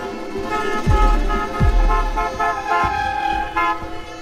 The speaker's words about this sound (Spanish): Hasta que escucho los primeros bocinas.